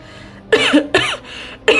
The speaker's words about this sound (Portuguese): Há quanto tempo tem essa tosse?